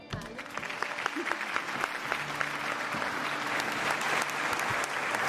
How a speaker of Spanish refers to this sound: De verdad que eh, el aplauso, y creo que tiene que ser mucho más fuerte, para todos ustedes,